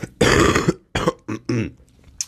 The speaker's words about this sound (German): ja, Husten knallt rein.